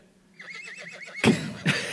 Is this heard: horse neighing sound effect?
yes